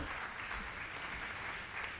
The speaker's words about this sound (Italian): applausi